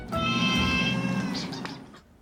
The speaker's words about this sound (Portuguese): Acompanhou de perto os bastidores da saída do Reino Unido da União Europeia, o avanço da pandemia de Covid-19 em um dos países mais afetados da Europa. Agora, imagina se esse gato falasse.